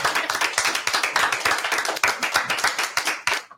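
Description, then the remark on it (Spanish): An audience at Tower 21 Studio bursts into applause: dense, rapid hand claps from several people, fairly loud and steady for a few seconds before cutting off, with no one speaking over it. “Ustedes, un aplauso de la...”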